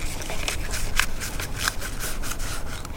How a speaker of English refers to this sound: the paper that has the things I love about myself and the things I want to increase, the spices that I want to increase, I'm going to roll this piece of paper towards me.